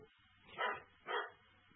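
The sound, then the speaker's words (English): A dog barks twice in quick succession, two short, fairly loud woofs about half a second apart, with quiet background between them and no talking, at a home in the countryside with nothing happening outside. “My dog's like, oh, what the barking is? There's nothing happening.”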